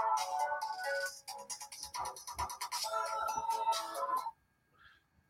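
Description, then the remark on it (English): A new phone's ringtone plays loudly for about four seconds, a bright, busy electronic melody with rapid repeating notes, then cuts off abruptly, leaving a faint trailing tone. “I don't know how to use this new phone yet.”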